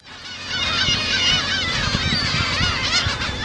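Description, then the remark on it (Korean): A dense chorus of black-tailed gulls living on Dokdo island, Korea, calling over one another, harsh mewing cries overlapping continuously and loudly, with a low rumble of wind or surf underneath. “독도에 산다는 오늘 독도의 날이기 때문에 독도 괭이 갈매기 소리입니다.”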